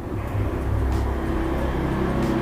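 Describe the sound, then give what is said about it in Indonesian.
A motorcycle passes by outside, its engine rumbling steadily as a low droning hum that stays fairly constant in loudness throughout, with no voices. “oke okay, motor lewat guys”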